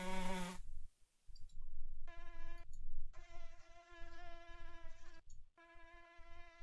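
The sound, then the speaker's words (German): A high, thin mosquito whine drones in several sustained bursts with short silent gaps between them, steady and nasal in tone, with no one speaking. “10 Sekunden leiser, ich will, ich will, dass die Leute hören, wie schrecklich so Mücken sind.”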